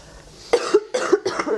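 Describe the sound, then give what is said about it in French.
A fairly loud run of three harsh coughs in quick succession, each a short raspy burst, from a person who is not ill, just before reading questions aloud, with no talking around them. “Et je vais vous les lire à voix haute, après avoir toussé.”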